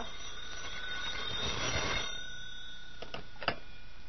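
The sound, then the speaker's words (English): A telephone bell rings with a steady, shrill tone, joined by a brief swell of rattling noise midway and a few sharp clicks near the end. No one speaks. “Oh, telephone. See, something's happening already.”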